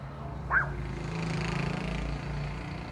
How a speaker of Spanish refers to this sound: Se graba, maldita moto.